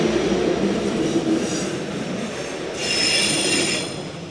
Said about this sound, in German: Moment, erstmal die Eifelbahn abwarten.